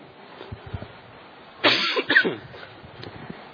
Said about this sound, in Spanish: Ya voy saliendo con la tos, me les pido tantita paciencia.